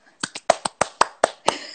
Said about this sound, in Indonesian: Coba hmm. bentar kasih tepuk ya, tangan ya. dulu. Dikasih tepuk tangan dulu.